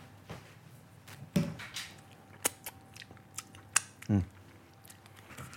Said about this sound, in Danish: Og så kan man, øh, du ved, klippe lidt øh, urte der. Lidt øh, persille